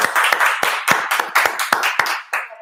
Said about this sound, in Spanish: Un aplauso para esta anciana.